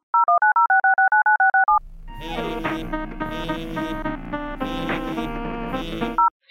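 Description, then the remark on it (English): A quick run of about ten clear electronic phone dialing beeps, steady, as a phone call is placed to the National Children's Museum, followed by a few seconds of bright music and a final short beep. “Let me just give her a call.”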